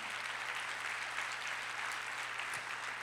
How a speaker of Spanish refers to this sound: Así que esto, dele fuerte, fuerte el aplauso al Señor.